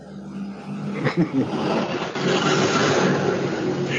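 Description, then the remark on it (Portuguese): A motorcycle roars by outside a window, its engine noise swelling after a brief rumble and holding loud and steady to the end, with no one talking. “eu só quero fazer um parede pra tá passar a moto aqui bem na hora.”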